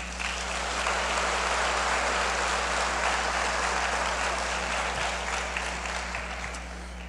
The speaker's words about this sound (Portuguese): Aplauda ao Senhor.